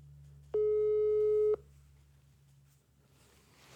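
A single steady telephone tone of an unanswered phone call rings out for about a second, loud and clear over a low hum, then cuts off, leaving faint line noise and a rising hiss.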